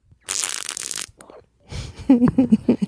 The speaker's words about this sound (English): what was that? It's a mouth fart.